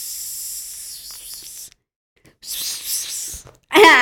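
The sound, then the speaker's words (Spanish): Air hisses out of something deflating in three bursts, a long steady rush, a shorter gusty one after a pause, then a final loud spurt with a squeaky, whistling edge. “Se está desinflando aguas.”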